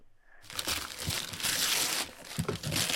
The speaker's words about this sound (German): Da wurde ein Geschenk aufgemacht.